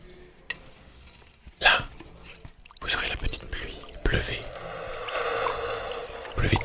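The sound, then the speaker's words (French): A crowd imitates light rain with soft, scattered tapping and rustling that starts sparse, then swells into a steady, hissing patter, with a brief murmur of voices near the start. “Pas de tempête qui ne commence par une petite pluie qui n'annonce rien de bon.”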